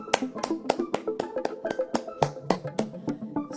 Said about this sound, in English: I, I really applaud the Anchor team for accessibility. In fact, here, here's an applause.